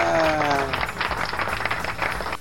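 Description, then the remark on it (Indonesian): A burst of applause sound effect, a steady dense patter of many hands clapping at a fairly loud level for a couple of seconds, opening with a brief falling whistle-like tone. “Ada tepuk tangannya.”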